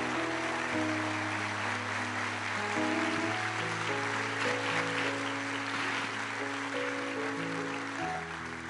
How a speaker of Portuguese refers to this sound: Você pode ficar de pé e dar um forte aplauso ao Senhor em nome de Jesus.